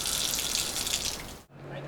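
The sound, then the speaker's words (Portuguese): Water runs steadily from an opened tap in the north zone of São Paulo, Brazil, with a bright rushing hiss. It breaks off abruptly near the end, then resumes more faintly over a low hum. “Mas se o assunto é complexo e divide a opinião de especialistas, de um modo geral, para os consumidores, para as donas de casa, o alerta só se acende mesmo quando abrimos a torneira e isso não acontece.”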